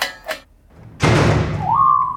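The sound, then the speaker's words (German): A door is opened after a couple of soft brief taps: a sudden loud whoosh of rushing noise sets in and holds, with a steady high whistling tone rising in near the end. “So, jetzt mal diesen Alarm aus, dann machen wir mal die Tür auf.”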